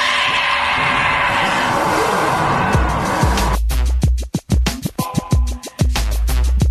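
Loud race car engines roar to life over a wash of crowd-like noise, then rev hard in sharp repeated bursts, aggressive, with no talking.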